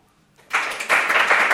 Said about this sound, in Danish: alle dem, der klappede mere, end jeg havde regnet med. Hvor mange klappede? 8, 8 mere, end jeg havde regnet med.